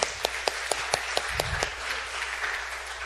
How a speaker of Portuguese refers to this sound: Salva de palmas para essa banda aí, galera.